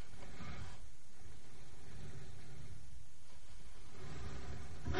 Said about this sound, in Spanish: Unos ruidos de madera chirriando hacen parecer que alguien trata de levantar o empujar una tabla o algo similar.